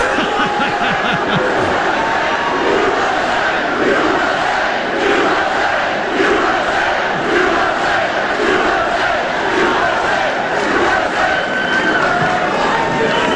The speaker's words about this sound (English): And I said, do tax cuts. Trump booed for tax cuts.